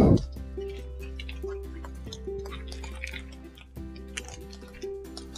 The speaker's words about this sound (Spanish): Quiero interrumpir un poco la, plática que tenemos esta mañana para que escuchen lo hermoso que se escucha la lluvia esta mañana aquí en Honduras.